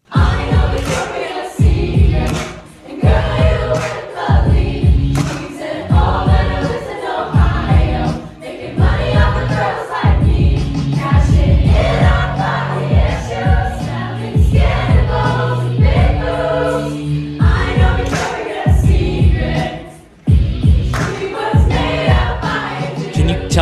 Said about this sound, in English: And so take a listen of this high school choir.